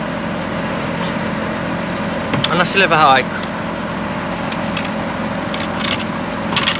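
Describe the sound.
A steady mechanical hum from a car jack raising a car with a deflated left rear tire drones on without a break. A brief spoken remark cuts in partway through.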